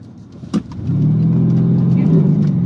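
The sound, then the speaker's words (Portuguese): A brief sharp knock, then an S63 car's engine surges into a loud, steady roar as it pulls away from a standstill, its traction control working constantly against the high torque, the pitch climbing slightly as it accelerates. “Eu vou, vou, vou mostrar aqui para vocês aqui no eu saindo com ela parada. O controle de tração dela não para de trabalhar.”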